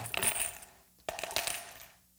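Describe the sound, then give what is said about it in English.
Coins of different shapes, sizes and weights clatter and jingle as they are dropped into a collection box, two quick bursts of metallic clinking separated by a brief pause, bright, with no voices. “What they had was coins. Uh, every amount of money that they had were coins, and they were different shapes, different sizes, different weights.”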